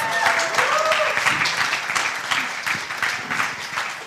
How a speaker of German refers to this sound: Danke mal Applaus. Applaus.